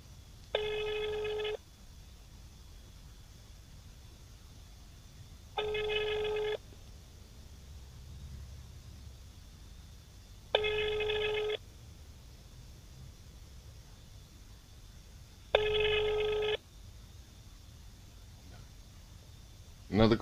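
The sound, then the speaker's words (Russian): A phone ringback tone from an outgoing call to the secretariat of the anti-terrorism commission of Altai Krai sounds four times, each burst about a second long and spaced roughly five seconds apart, steady and fairly loud over a faint background hiss with no one speaking. “Так, звоним.”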